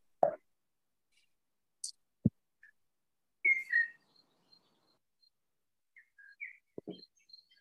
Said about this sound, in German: Die Vögel kommunizieren bereits.